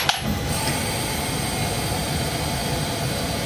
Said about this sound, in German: Was ihr übrigens so laut bläst, ist die Klimaanlage.